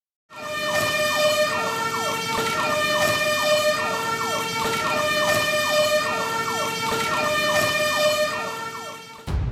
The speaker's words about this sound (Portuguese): Se você está ciente e deseja continuar, permaneça na linha após a sirene do caminhão do Corpo de Bombeiros da Vila São José.